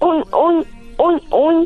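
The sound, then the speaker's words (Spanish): A child's voice imitates a pig with four short, nasal oinking grunts in two quick pairs, fairly loud, with a brief pause in the middle. “Muy bien, y ahora puedes hacerle como un puerco.”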